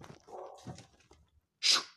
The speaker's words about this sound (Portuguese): porra, pera aí que meu cachorro tá, resolveu ficar de latação justo agora, deixa eu dar uma um xixi nele, pera aí.